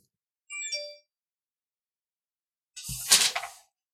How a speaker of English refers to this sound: Uh, again, I apologize for the background noise. There's so many phones going off in my studio right now.